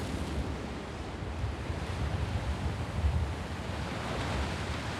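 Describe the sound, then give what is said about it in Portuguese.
A steady roar of surf washes along the shore, with waves rolling in and swelling slightly around the middle, accompanied by a low rumble of wind across the microphone. No voices. “Tudo que eu quero agora é não ouvir mais nada além do silêncio do mar.”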